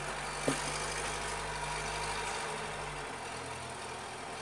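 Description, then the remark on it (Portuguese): A truck engine rumbles outside with a steady, heavy low drone and broad road noise, its tone shifting and easing near the end as it moves past. No one speaks. “Espera o caminhão passar, peraí.”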